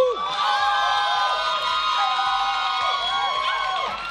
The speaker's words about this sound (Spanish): El aplauso fuerte para ….